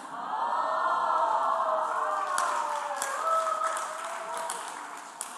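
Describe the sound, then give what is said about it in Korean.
An audience applauds and cheers, with scattered sharp claps over a steady wash of crowd voices and whoops. The noise holds fairly loud for the full stretch. “요 박수 안 친 인간들”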